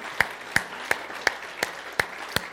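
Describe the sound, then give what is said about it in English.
An audience claps together in a steady, even beat, about seven sharp claps in quick succession over a soft background murmur, with no voices rising above it. “This clap, give him a welcome this morning, all right?”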